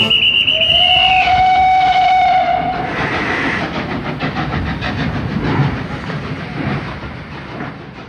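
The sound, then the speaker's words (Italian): A loud steam whistle blows for a few seconds, then a train rumbles past with steady rhythmic chugging and clattering wheels, gradually fading slightly toward the end. “Piano piano i treni ricominciano a portare i viaggiatori in città”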